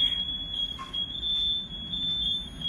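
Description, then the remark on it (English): Smoke detectors in a house shriek with a piercing, high-pitched tone that holds almost unbroken for a few seconds, steady, over a low background rumble with no one speaking. “My fire alarms are going off in my house.”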